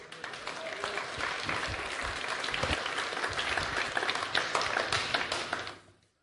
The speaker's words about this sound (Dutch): Als je hem een applaus wil geven, geef hem een goed applaus.